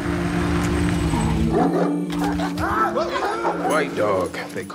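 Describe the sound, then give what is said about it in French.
A dog barks in several short, irregular bursts, its yelping calls rising and falling over a steady low droning hum. “Il y a un chien, viens voir.”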